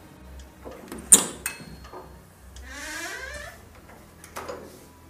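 A door opens with a sharp latch click, then a creaking, sweeping swing and a few soft knocks, over a low background hum.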